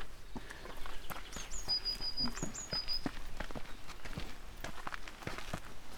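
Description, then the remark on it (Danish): Footsteps thump steadily up a couple of steps outdoors beside a bridge over a small stream, a series of firm, regular impacts, while birds chirp thin, high calls in the background. “Og så skal vi lidt op ad et par trin her.”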